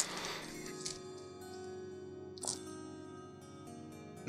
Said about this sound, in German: tut mir jetzt wirklich leid, das ist natürlich jetzt super spannend, wie der DM Würfel raustut.